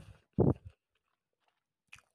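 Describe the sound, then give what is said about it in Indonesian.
A bite into ayam geprek (smashed crispy fried chicken) with green chili sambal, eaten at lunch: one loud, crunchy burst followed by a shorter, softer chew, then quiet apart from a faint crisp click near the end. “Oke, pertama satu suapan dulu ya.”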